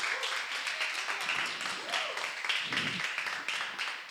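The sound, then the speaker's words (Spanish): A crowd gives applause to God, clapping steadily in dense, continuous applause that stays fairly even in loudness, with faint voices and cheers rising briefly through it. “Yo no sé si puedes darle un aplauso a Dios.”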